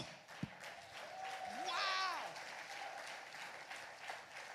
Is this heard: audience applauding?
yes